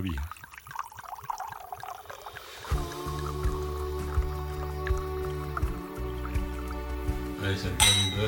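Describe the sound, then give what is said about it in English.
Wine glasses clink together once in a toast near the end, a bright ringing tap that follows soft dripping and liquid sounds over a steady low background hum. “Cheers to both of us. Cheers to us both, Dad.”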